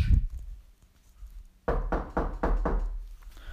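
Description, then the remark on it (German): A single dull thump, a short pause, then a quick run of about five firm, evenly spaced knocks on a door, fairly loud, with no voices. “Oh, du hörst es ja sein. Das muss er sein. Hm? Hi Spike, komm rein.”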